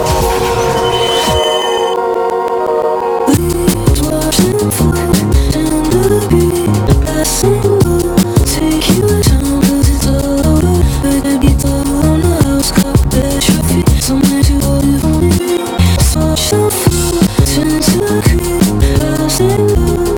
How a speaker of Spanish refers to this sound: cerrarlo con música nueva